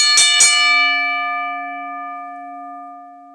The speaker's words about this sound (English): Let's ring that bell to end this matchup and to end my predictions and review on WWE Survivor Series weekend.